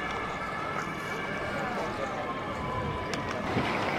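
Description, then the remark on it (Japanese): A Polizei police patrol car's siren passes by on a busy street, its sustained wail riding over a constant wash of loud traffic and city noise, with faint voices in the background. “今通り過ぎたのがポリチャイ警察のパトカーでした”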